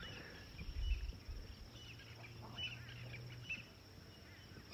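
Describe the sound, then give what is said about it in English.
Faint bird calls scattered over a quiet outdoor ambience in the savanna after a little rain, with insects emerging, a low steady rumble underneath and no one speaking. “the emergence of insects and the birds are gleeful.”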